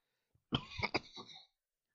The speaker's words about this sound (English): I have some hot tea for that cough, don't worry. Hopefully you didn't hear much of that.